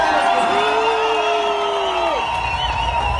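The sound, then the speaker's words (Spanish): A crowd cheers loudly and continuously, with the people at the back of the audience erupting in overlapping shouts and whoops, including a long sustained yell that slides down in pitch before fading into the steady roar. “Oye, los de atrás están estallados, qué rico.”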